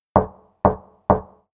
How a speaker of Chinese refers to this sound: 一个冬天的夜晚，正当她们全家人舒舒服服地坐在一块儿，这时突然听到有人在敲门。